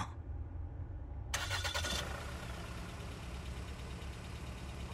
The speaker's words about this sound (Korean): 동시에 엔진이 부르릉거리기 시작했다.